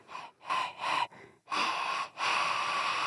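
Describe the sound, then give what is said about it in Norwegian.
Breathy airflow shaped into a song's tune without any voiced singing: several rhythmic puffs of breath, then two longer sustained exhalations, like a melody breathed out rather than sung. “Jeg pleide å sitte og puste musikk når jeg ikke fikk synge. Så måtte jeg puste sangene som jeg likte.”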